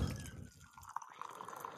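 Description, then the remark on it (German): Tea trickles into a cup, a quiet, bubbling pour with a few small drips and a rising gurgle as the cup fills. No one speaks. “Ich gieße mir den Tee ein, wie man hier hört”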